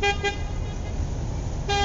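The horn of a car waiting behind at a traffic light that has turned green honks impatiently twice in quick succession, then blares again in a sustained blast at the end, its bright buzzy tone sounding over a steady low engine rumble.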